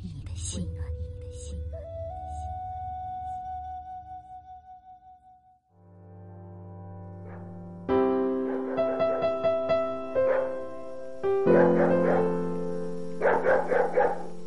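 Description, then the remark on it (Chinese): A distant dog barks late on a quiet night in a run of repeated short bursts, set against sustained, music-like tones that carry through the whole stretch. “夜阑人静，偶闻遥远的吠声”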